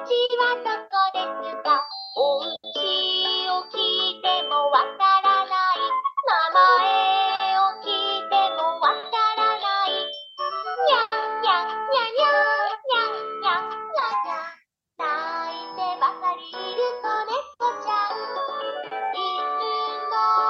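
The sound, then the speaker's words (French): A Japanese children's song about a lost, crying kitten plays continuously, a bright, bouncy melody with clear tuneful notes. It sounds fairly thin and lo-fi, with only a brief pause near the end. “Voilà, donc dans les chansons, dans les chansons euh, connues au Japon pour les enfants, par exemple, il y a celle-là.”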